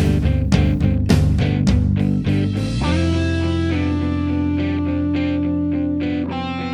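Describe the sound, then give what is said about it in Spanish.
A loud rock song plays from a recording, with distorted electric guitar and pounding drums driving a steady beat, then settling into sustained chords with rhythmic hits. No one speaks. “Lo que suena ahora desde el disco …, ….”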